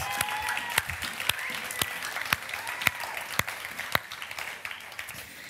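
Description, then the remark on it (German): Audience applause for their parents, a steady wash of many hands clapping at moderate volume, with a few sharper individual claps standing out at irregular intervals throughout. “Ja, gib mal unseren Eltern einen Applaus.”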